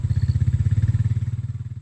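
An ATV engine runs with a steady, rapid low chugging, loud and even, easing slightly toward the end, with no voices present; it carries yellow buckets of picked fruit from vineyard rows at a winery to giant crates at the bottom of a hill.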